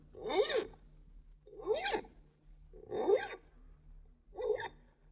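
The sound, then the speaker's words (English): Four slow, evenly spaced rasping strokes of a metal file grinding on a man's metal right-hand hook in London, each with a squealing, whining edge. Moderately loud, with no voices. “The sound you hear is that of a man having his right hand hook filed.”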